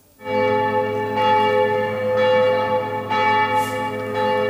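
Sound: church bells ringing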